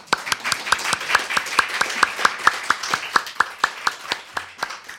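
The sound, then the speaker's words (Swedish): Steady, rhythmic hand clapping, about four claps per second, sharp with no voices, the sound of an audience applauding. “Vi applåderar henne då.”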